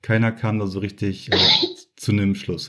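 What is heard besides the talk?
cough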